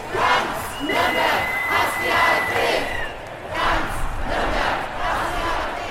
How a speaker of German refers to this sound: So klang es letzte Woche Samstag am Nürnberger willy brandt und auf den Straßen drumherum. 15 bis 25.000 Leute waren gekommen zur Demo des Nürnberger Bündnisses Nazi-Stopp.